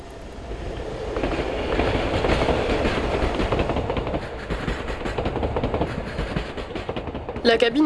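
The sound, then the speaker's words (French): A narrow, empty train wagon with old, faded red seats rolls along the rails with a steady rumble and rhythmic clickety-clack, swelling slightly in the middle and ending with a brief bright screech. “Le wagon n'est pas très large, mais juste assez pour laisser passer Zaïd et son sac de sport.”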